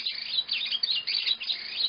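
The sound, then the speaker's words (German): Frogmouth bird calls: a dense, continuous stream of high, rapid chirps and whistles with no pauses and no voices, moderately loud. “Die kommen vom äh, Eulenschwalm”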